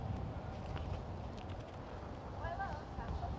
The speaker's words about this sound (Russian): нет, ветер все-таки есть.